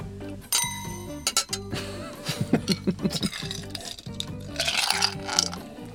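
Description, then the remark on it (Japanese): Glasses clink together in a toast, giving a bright ringing chime that lingers briefly, followed by a few lighter clinks. Soft background music plays throughout. “おいありがとう乾杯”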